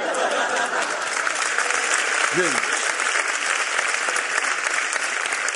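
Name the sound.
audience applause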